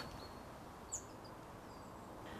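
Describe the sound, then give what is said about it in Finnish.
A single short bird chirp rings out over quiet outdoor ambience, with a few faint, thin whistles in the background. No one speaks. “Lintuja täällä, ihana kaistikko tuossa.”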